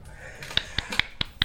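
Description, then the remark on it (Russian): Five crisp finger snaps in a quick, steady rhythm, offered like a small round of applause against a quiet background. “Мои аплодисмент.”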